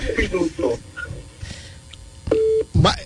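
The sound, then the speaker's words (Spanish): A phone call drops out into a single loud, steady electronic beep, like a busy or disconnect tone, after a stretch of faint, garbled talking and line noise. “Oye, en un momento la llamada como que no entró, dejó de escucharse”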